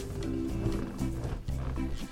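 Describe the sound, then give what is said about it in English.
A chair creaks and squeaks with low, drawn-out, fart-like groans, several strained tones running back to back, fairly loud, with no talking. “Sorry, in case you hear the farty noises in the background,”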